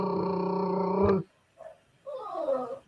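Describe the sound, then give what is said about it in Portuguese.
A voice imitates a drumroll with a loud, rolled trill lasting about a second, followed after a pause by brief murmured vocal sounds. “É só colocando que, que rufem os tambores. Brrr.”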